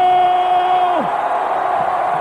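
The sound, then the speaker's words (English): A wrestling arena crowd cheering Hacksaw Duggan's victory in a loud, steady roar, with one sustained high yell or whistle that slides down in pitch about a second in before the din carries on. “We've got a great crowd. They're red hot tonight, and they love this victory here, Hacksaw.”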